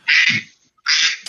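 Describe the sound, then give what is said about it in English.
A phone ringtone of duck quacking, signalling a call from the speaker's mother: two loud, raspy quack bursts separated by a brief pause, clear with no talking. “Uh oh, somebody's quacking. I had to check.”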